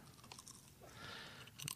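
Someone munches potato chips, a run of quiet, irregular crisp crunches that swell slightly midway and end with a sharper, louder crunch. No one speaks.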